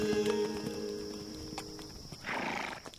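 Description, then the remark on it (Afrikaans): A tired, blind white horse's hooves clip-clop at a slow walk, a few hard knocks on the ground. A tonal, whinny-like sound fades out early on, and a breathy rustle follows near the end. “Dis die wit perd van Kalfini. Hy loop maar hy kan nie sien nie.”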